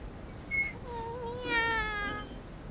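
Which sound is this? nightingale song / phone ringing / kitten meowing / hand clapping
kitten meowing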